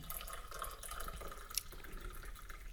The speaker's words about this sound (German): Das hört sich jetzt aber auch an, als ob ich hier pinkeln würde. es ist Kaffee, versprochen.